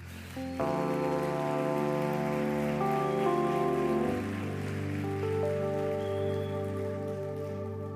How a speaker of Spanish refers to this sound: Un aplauso para Jesús.